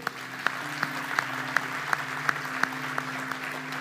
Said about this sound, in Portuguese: Você pode dar um aplauso ao Senhor?